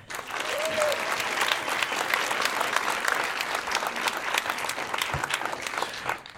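A crowd applauds steadily, dense clapping at an even level throughout, with faint whistles and cheers mixed into the wash of hands.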